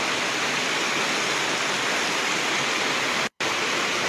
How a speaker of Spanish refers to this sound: Desde Galapa, barrio San Antonio, ¿verdad? Sí. Pero eso parece un río, lleno, un río desbordado, fuera de, madre, fuera de control, y, la gente asustada, obviamente, sobrepasando los, los bordillos.